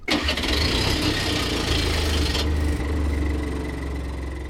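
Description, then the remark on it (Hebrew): The diesel engine of an old tank, run outside a gas chamber at the Bełżec camp, cranks and catches, then settles into a loud, steady low rumble with a rough, knocking idle. There is no talking. “הם נכנסים לתא הגז, בחוץ יש טנק ישן, מנוע של טנק ישן, כשהיהודים סגורים בפנים. מפעילים את מנוע הדיזל.”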